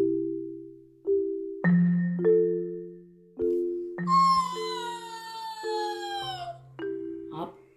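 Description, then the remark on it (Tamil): A voice imitates a fox howling: a series of drawn-out, wavering vocal tones, with the longest sliding slowly downward in pitch before a few shorter howls follow. “இப்படின்னு ஊழையிட்டே வந்த நரியோட கண்ணில் அந்த இறந்து போன பெரிய யானை பட்டுச்சு”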